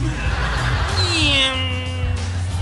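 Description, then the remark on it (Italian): A lone voice mimics a race car whizzing by on a racetrack, illustrating the Doppler effect, holding a nasal tone that slides steadily down in pitch over a couple of seconds, with a low constant hum underneath. “La stessa cosa succede con il rumore prodotto dalle vetture sulle piste automobilistiche”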